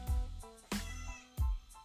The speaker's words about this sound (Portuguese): Fala miau de novo.